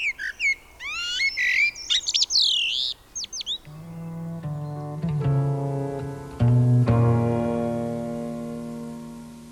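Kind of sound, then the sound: bird, common blackbird singing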